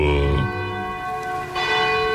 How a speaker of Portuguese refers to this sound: Bate o sino da Catedral da Nossa Senhora de Aparecida, anunciando que Deus está aqui.